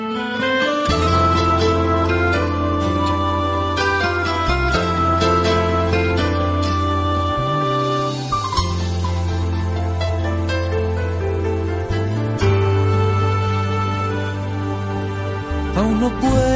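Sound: song playing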